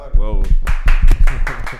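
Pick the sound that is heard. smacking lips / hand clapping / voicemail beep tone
hand clapping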